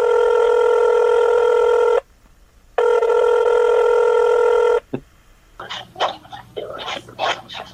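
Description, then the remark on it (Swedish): A phone call placed to a man, to see if he answers, rings out with two long, steady electronic ring tones separated by a short pause, then a click as the line picks up, followed by a few short yelping sounds. “Vi testar att ringa honom så får vi se om han svarar, om han har något att säga.”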